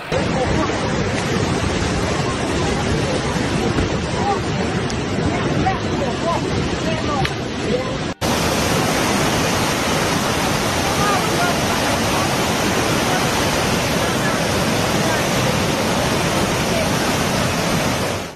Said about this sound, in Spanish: Por su parte, en Serbia, las intensas precipitaciones inundaron calles, campos de cultivo y hogares, y al mismo tiempo, las corrientes de agua arrastraron autos y destruyeron carreteras.